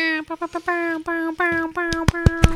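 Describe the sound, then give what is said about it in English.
A voice mimics an air horn, blaring a rapid string of short nasal honks, then longer held blasts, with sharp hand slaps or claps punctuating the end. Loud. “Me deciding to do a terrible air horn.”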